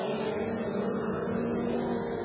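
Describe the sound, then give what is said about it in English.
A steady, continuous engine roar from stock race cars running at Ocala Speedway as the field works through turns one and two, a dense droning blend of motors holding at a constant level with no voices. “Blake Spencer has the field in tow as they work through one and two”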